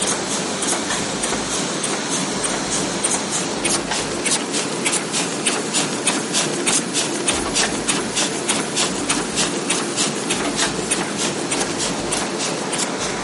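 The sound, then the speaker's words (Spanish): A printing press used in making a book, printing the text of a PDF onto sheets, runs steadily, its loud, fast rhythmic clatter repeating evenly over a constant mechanical rumble, without any voices. “Así es, la primera máquina es la de impresión. Sí, la que hace que el PDF salgan las letras a las hojas.”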